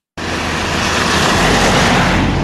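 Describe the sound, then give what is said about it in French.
A loud roar of heavy trucks of about 40 tonnes passing along a town street in Le Tillot at 50 km/h or more rushes in abruptly and holds steady, with a deep engine rumble building underneath as the large vehicles pass. No one speaks. “40 tonnes qui déboulent à 50 km heure ou plus en pleine rue, de jour comme de nuit, ça fait réagir.”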